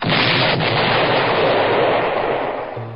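A powerful explosion at a school roars loud, a dense rumbling blast that shakes the building and holds for a few seconds before easing off slightly at the end, with no voices.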